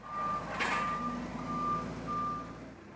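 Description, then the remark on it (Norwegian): A forklift's reversing alarm beeps in steady, evenly spaced high-pitched tones over a low engine rumble, with a brief hiss of air near the start. “I'm really, really hurry right now, and I need to concentrate to try with the forklift.”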